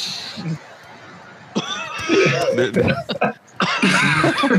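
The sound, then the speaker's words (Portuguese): A few short, harsh coughs break out amid lively voices and some chuckling, loud, with noisy bursts scattered across a few seconds. “Agora descobri de onde veio essa tosse aí, cara.”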